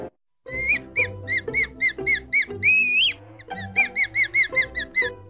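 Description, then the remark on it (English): A voice imitates a T. rex call with a quick run of high, squeaky, bird-like chirps, about a dozen in steady rhythm, broken by one longer wavering squeal partway through. “What if you like were living back in that time and a T Rex rolled up on you and he was like comes stomping up and he opens his giant mouth full of teeth and he's like,”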